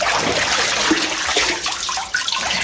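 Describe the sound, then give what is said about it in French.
A removable papermaking frame with copper wire plunging into a vat of paper pulp: a steady wash of sloshing and splashing water lasting a few seconds, with no talking. “Alors, on plonge le cadre”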